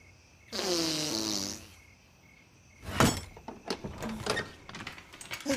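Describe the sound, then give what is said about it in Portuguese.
A single buzzy, wobbling fart noise, made as a password, lasts about a second, likely blown with the mouth, loud. After a pause, a sharp burst and a scatter of clattering sounds follow. “Barulho de peido?”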